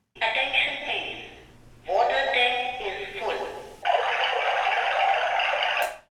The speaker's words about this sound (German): Eine weitere Vorrichtung für sehbehinderte Menschen die hörbare Wassertank-Füllstandsbenachrichtigung.